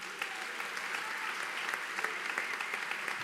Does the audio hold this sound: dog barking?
no